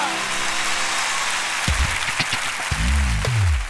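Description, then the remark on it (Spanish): An audience applauds for María in a dense, steady wash of clapping that holds its loudness throughout, while a voice breaks in over it during the second half. “Fuerte el aplauso para María.”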